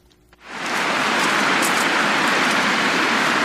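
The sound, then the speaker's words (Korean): A loud, steady roar of road traffic at a busy intersection by the Seongsu Bridge memorial tower swells in after a brief quiet start and holds as a dense wash of vehicle noise, with no voices. “일령탑은 오가는 차들의 요란한 소음 속 안내 표지판도 제대로 없는 곳에 정말 초라하게 세워져 있습니다.”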